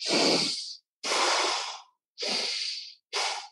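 Four slow, deep breaths drawn in and out through the nose with lips sealed during meditation practice, in a steady rhythm, fairly loud, each airy rush lasting nearly a second with short pauses between. No talking.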